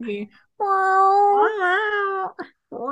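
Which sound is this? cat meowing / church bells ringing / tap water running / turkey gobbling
cat meowing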